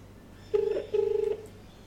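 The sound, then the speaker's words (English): An iPhone placing an outgoing call: ringback tone of two steady, buzzy pulses in a quick double-ring pattern, the second longer, heard clearly over a faint low hum with no voices. “There's the phone calling.”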